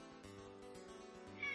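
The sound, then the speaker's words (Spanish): A kitten meows in the background in a long, drawn-out, quiet cry with a steady tonal whine. It rises into a slightly higher, brighter note at the very end, with no talking over it. “Mientras suena el gatito de fondo.”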